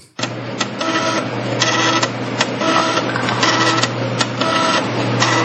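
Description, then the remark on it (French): A floppy disk drive reads steadily, its motor droning under a loud mechanical whir while the head clicks and chatters in quick irregular bursts, with no talking. “Ah, lecteur de oh disquette.”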